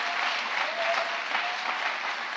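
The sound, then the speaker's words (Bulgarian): An audience applauding steadily, a dense wash of many hands clapping at once, loud and sustained throughout with no speech over it. “О, ако ръкопляскаш, ръкопляскай, като че наистина вярваш.”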